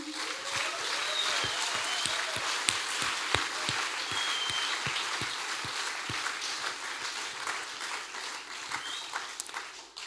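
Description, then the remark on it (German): An audience applauds God for the stories just told, clapping steadily for about ten seconds, a dense wash of many hands clapping at once with a few sharper individual claps standing out, holding fairly even loudness throughout. “Und lass uns einfach Gott nochmal einen Applaus geben für die Geschichten.”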